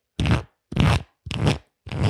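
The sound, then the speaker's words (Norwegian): Playing cards being shuffled: four quick, dry, papery bursts, each about a third of a second, repeating at an even pace with short silent gaps between them. “Og bare, nå, nå, har jeg faktisk en kortstokk her, så bare for å illustrere hvordan det kan høres ut, så høres det ja.”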